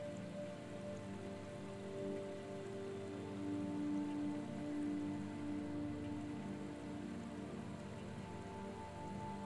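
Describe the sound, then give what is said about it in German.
Soft, steady splashing of water heard from a distance in a small patch of woodland, like light rain pattering onto a surface, continuous and gentle throughout, with a faint tonal hum underneath and no voices. “Aus der Ferne hörst du ein leichtes Plätschern und fragst dich, woher es wohl kommen mag.”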